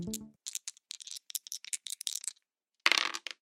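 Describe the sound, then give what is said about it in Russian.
Players throw dice in a game, rolling a total of 11: a quick run of sharp, irregular rattling clicks for about two seconds, a short pause, then a denser clattering burst as they land. No one speaks. “Вы можете бросить кубики.”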